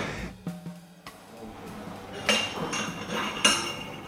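A thin-stemmed wine glass is set down on a table before a guest for a wine tasting, giving two light, bright clinks about a second apart over a soft, busy background.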